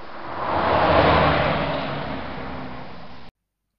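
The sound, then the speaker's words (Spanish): A car drives with its engine humming steadily, approaching through a forest at nightfall, a broad rushing swell that builds over the first second, then eases off gradually before cutting out abruptly. “Las luces del coche no pasaron inadvertidas para los grandes ojos de Malak, el sabio búho gris del bosque.”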